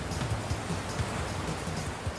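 Continuous rushing river water with choppy splashes and low sloshing thumps, a steady turbulent wash with no voices, as a person clings to a capsized kayak on a jungle river full of huge boulders.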